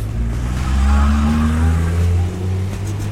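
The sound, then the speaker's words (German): A loud Toyota Corolla engine revs up as the driver floors it to run someone over, its low growl climbing steadily in pitch for about two seconds before easing off, heard alone without any talking. “Überfahr den, Mann! Drück drauf! Drück drauf, Digga! drück drauf.”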